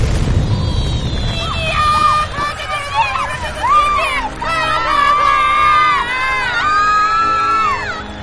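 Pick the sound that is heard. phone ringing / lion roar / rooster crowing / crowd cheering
crowd cheering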